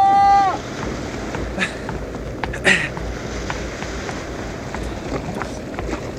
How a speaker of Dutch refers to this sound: ik zal de boot afduwen